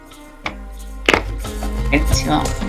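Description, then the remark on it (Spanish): A deck of tarot cards being shuffled: a single tap, then a sharp snap followed by a couple of seconds of steady papery riffling and flicking. “Vamos a barajar las cartas y le vamos a contestar, ¿ya?”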